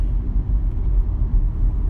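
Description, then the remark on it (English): Steady low rumble of road traffic near central Phoenix during moving week at GCU, cars droning past with a continuous engine and tire hum, no voices and no breaks in the noise. “Um, but traffic's getting pretty bad.”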